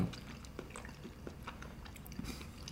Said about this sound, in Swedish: Den här blev lite bättre, så den blir nog bättre mm. med varje tugga.